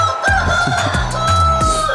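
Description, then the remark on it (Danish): A rooster crows loudly, one long drawn-out cock-a-doodle-doo that fills about two seconds, with some low rhythmic thumps underneath. “Leveringsdygtige i en god hanekamp.”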